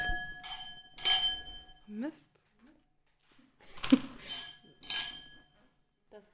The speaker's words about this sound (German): trinken wir zusammen unseren ersten Schluck der heutigen Folge auf den lieben Arns und hoffen, dass er ein bisschen weniger traurig ist. Prost!